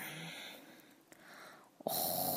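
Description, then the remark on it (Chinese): A raspy, wheezing snore from someone sleeping soundly in bed in a bedroom: a long, breathy inhale that fades, then a brief snort-like catch and a louder, rushing exhale. No one speaks. “蹦蹦畅快的打着呼噜，跳跳给逗得咯咯笑。”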